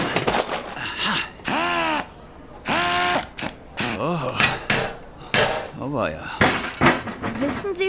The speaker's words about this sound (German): Mit geübten Händen wühlte er zielsicher zwischen Kabeln und Platinen im Inneren des Apparats herum. Dann griff er in seinen großen Koffer und holte diverse Werkzeuge hervor.